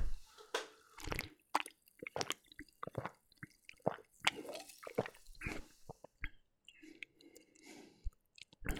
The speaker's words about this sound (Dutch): Het ruikt in elk geval vooral naar ginger. Ik ga gewoon eens een slokje nemen.